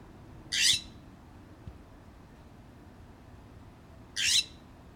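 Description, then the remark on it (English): Two harsh, raspy calls of a scrub jay coming in to land on a person's hand for peanuts, several seconds apart, ring out clearly over a quiet, low background hum with no one talking. “Hear it coming, landing in Jake's hand.”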